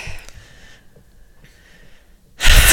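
Heavy, breathy panting, a few hoarse inhales and exhales with short pauses, ending in a sudden loud gust of breath. No one speaks.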